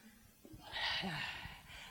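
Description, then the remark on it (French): A voice imitates a snore: one long, rasping, breathy inhale-and-rumble, fairly loud and with no talking around it. “Quand elle est bien rassasiée, elle rote, elle s'allonge, elle ronfle.”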